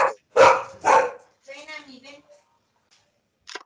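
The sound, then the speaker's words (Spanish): A large dog barks twice, loud, followed by a softer whining, drawn-out vocal sound and then quiet, with a brief faint noise at the very end. “Creo que está ladrando el perrote mayor.”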